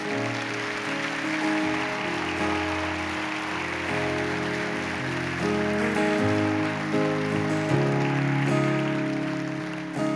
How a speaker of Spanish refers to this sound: ¿Cuánto le pueden dar un aplauso a Dios?